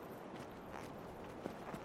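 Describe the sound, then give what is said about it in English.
Soft horse hooves clip-clop faintly over a steady hiss of background noise, a few light taps spaced unevenly, with no one speaking. “You have a horse.”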